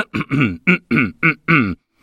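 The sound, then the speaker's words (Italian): A voice imitates a small cough, clearing the throat in a quick series of about seven short, voiced, gravelly bursts, each separated by a brief pause, with no other sound. “Allora tossì un po'.”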